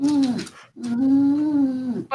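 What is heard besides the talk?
dog howling or whining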